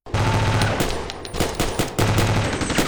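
Bursts of automatic assault rifle fire ringing through a villa and advancing toward a staircase, rapid sharp cracks in dense volleys with brief pauses between strings of shots, loud and continuous with no voices.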